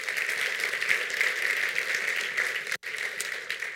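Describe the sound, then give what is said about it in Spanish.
An audience at a Spanish-language church service applauding for Christ, a dense wash of many hands clapping with a bright, crackling texture, cut off by a sudden brief gap before resuming at the same level. “Dar un aplauso a Cristo.”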